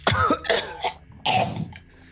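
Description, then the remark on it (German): A voice acts out the coughing of Kirill, a werewolf now in humanoid form, stirring at the end of a short rest: rough, hoarse coughs and throat-clearing grunts in several quick bursts, a short pause, then one heavier cough trailing into a faint rasp. “Zu Ende eurer Short Rest bewegt sich Kirill etwas, der Werwolf, der nun humanoide Gestalt angenommen hat, der so ein oh, bisschen oh, hustet.”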